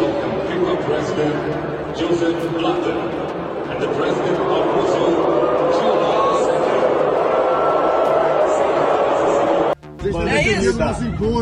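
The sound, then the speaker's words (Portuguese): A huge stadium crowd at the Arena Corinthians, during a Brazilian national team match, roars, boos and chants insults at the president in a loud, sustained wall of voices, then abruptly cuts to a single voice talking. “Por quatro vezes, a presidente foi alvo de vaias e xingamento.”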